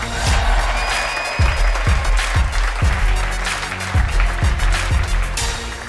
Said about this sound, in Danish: Lad os give vinderholdet en kæmpe stor hånd.